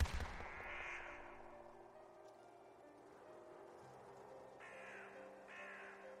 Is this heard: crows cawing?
yes